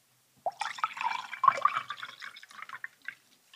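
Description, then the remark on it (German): Water pours steadily into a glass for about two and a half seconds, a bubbling splash that gurgles and tapers off into a few last drips. No one speaks. “Ich habe, glaube ich, nicht mehr genug warmes Wasser für nochmal.”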